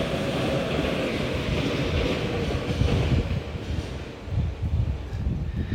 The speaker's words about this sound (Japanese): ちょっと待って電車が通って